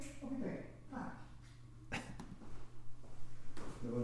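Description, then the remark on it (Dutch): A dog whimpers softly, letting out a few short, high whines between quick, breathy pants, with a steady low hum in the background. “En, uh, ik ga even mijn hond hebben.”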